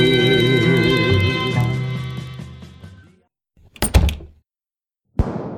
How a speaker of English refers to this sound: Did someone just shoot themselves? That muffled gunshot implied a suicide.